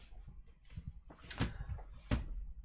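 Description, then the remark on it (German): A limousine door is opened with a creaking, clunking sound followed by a sharp latch click, then a couple of knocks and bumps around it as someone gets out, with no voices. “So, macht die Tür auf, geht raus.”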